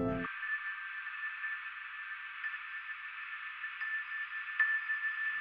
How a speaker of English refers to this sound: And um, I like flicked the glass at a certain point just because I don't know, I don't remember why now. And it happened to be on on this note